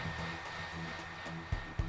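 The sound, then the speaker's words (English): A hair dryer blows with a loud, steady whoosh over the sound of an animated TV program, the Peanuts Halloween special, unbroken throughout, with two brief low thumps near the end. “Her hairdryer whooshing loudly over the sound of the animated program that was abruptly interrupted by an emergency news bulletin.”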